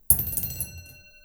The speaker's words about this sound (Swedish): Nu slår jag första tärningen.